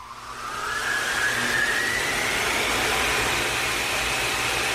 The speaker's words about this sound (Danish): Relativt kraftig støvsuger, ikke Signe? Jo, lyder som DC3-motor.